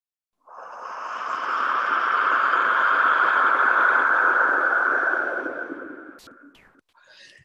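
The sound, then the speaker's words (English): A wind whistle is blown in one long, airy whoosh lasting about five seconds, swelling quickly, holding steady, then tapering off, with no clear tone. A couple of faint clicks follow. “I'm going to give it one more push with this other whistle.”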